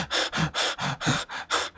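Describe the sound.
A voice imitates rapid panting, about seven quick, breathy puffs in a steady rhythm, fairly loud, with no talking.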